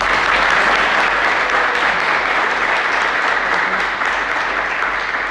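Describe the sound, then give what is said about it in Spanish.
A crowd applauds steadily for the national director, a dense, even wash of many hands clapping at once that holds loud and constant throughout without pausing or fading. “Entonces, miren, yo quiero pedir un fuerte aplauso para nuestro director nacional”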